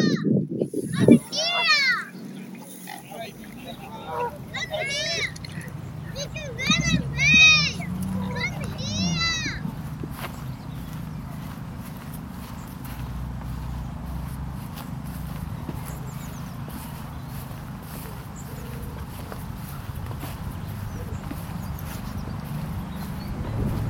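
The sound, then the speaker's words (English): Park ambience in Kensington Gardens, London, with children playing: high, excited children's voices and calls over the first ten seconds, then a steady outdoor hum with faint activity continuing underneath. “currently in Kensington Gardens in London.”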